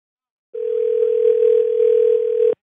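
A steady telephone dial tone hums for about two seconds at an even, fairly loud level with no talking over it, then cuts off abruptly.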